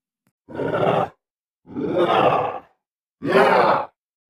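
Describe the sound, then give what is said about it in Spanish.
Three loud, hostile grunts, each about half a second to a second long, from an animal that has run into a forest cabin and shut the door, with short pauses between them and no talking. “A la par que emite un gruñido de pocos amigos.”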